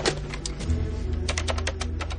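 A woman lifts a telephone receiver and dials a number: a quick series of sharp button clicks, about ten presses in an uneven rhythm, fairly loud over a low steady hum, with no voices.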